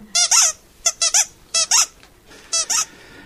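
A small rubber squeaky doll toy is squeezed in quick pairs, four double squeaks with short pauses between them, loud with no talking.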